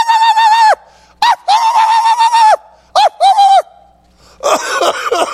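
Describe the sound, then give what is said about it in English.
A voice imitates a dog that barked at everyone passing its house: a long, strained yelp, then a quick string of shorter barks with pauses between, high-pitched and loud, ending in a raspy, broken outburst. “But this dog would bark all the time.”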